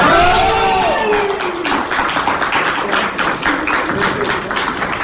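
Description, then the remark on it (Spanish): A crowd bursts into sustained, dense applause at the announcement of Colombia as host country of the next Junior Pan American Games. The applause lasts the whole clip, with excited shouts and cheers rising over the clapping at the start before the steady clapping carries on. “Entre aplausos eh, se recibió hoy la designación de Colombia como nueva sede el país sede de los Juegos Panamericanos Junior.”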